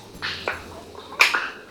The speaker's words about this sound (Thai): นอกจากเสียงของกุ้งดิดคัน